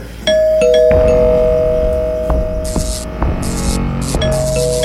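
A house doorbell rings over and over, loud, its sustained electronic tones repeating insistently with little pause between rings, over a background hiss.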